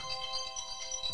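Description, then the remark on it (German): An alarm clock rings with a steady electronic tone, layered with bright, high repeating chimes that pulse a few times in quick succession. No voices are heard. “Das ist mein Wecker.”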